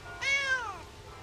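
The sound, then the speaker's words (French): A single cat meow, clear and fairly loud, with a rising-then-falling pitch that fades out, heard alone with no talking around it. “Oh, Je me demande si c'était même permis de flatter les chats.”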